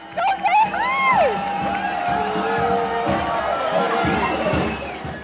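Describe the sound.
A large crowd at a homecoming for veterans and student guardians cheers and shouts in a dense, continuous roar of overlapping voices, with rising and falling calls and a burst of clapping near the start.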